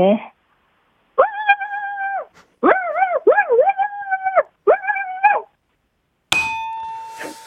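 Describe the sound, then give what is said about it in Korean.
On Park Myung-soo's Radio Show, a man's voice imitates a country dog barking. He gives four drawn-out, howling barks in quick succession, loudly, followed by a bright ringing chime. “시골에 있는 개가 짖는 소리.”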